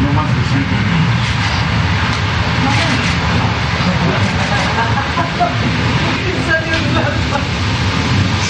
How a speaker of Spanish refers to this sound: Pues estamos ya por bajar acá en Oaxaca, estamos a, a, un minuto de aterrizar, a menos, yo como a cinco minutos.